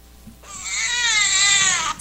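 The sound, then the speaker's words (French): A newborn baby wails in one long, sustained, loud cry with a strained, slightly wavering pitch, in a ward of about ten beds at the Hôpital Chancerelle maternity in Cité Soleil. The ward holds women coming from the operating theatre. No one speaks over it, and a little room noise sits underneath. “C'est le cri d'un bébé qui résonne dans une salle à la maternité Isaïe Gentil-Léon Audin, communément dénommée Hôpital Chancerelle.”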